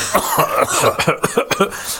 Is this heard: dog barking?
no